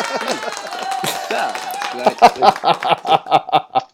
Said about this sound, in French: T'allais-tu sortir un effet sonore? Ben oui, je, viens de le ah, faire, là. des applaudissements, toi, imagine.